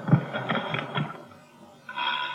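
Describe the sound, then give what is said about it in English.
A collapsible guitar, whose sound box is normally replaced by a balloon, played without the balloon: a few thin, dry plucked string notes ring out quickly and fade, followed by a short pause and another brief strum. The tone is small and boxy, with little resonance. “I had to invent a collapsible guitar because, you know, a guitar is very difficult to carry all over.”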